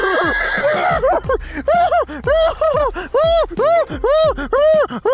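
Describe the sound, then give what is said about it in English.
A person imitates a chestnut brown horse with white and pink dapples neighing, letting out a rapid series of loud, wavering whinny cries that rise and fall in pitch, one after another, with no other sounds around them. “And one of the horses, it is this chestnut brown with dappled like white and pink. Immediately starts going”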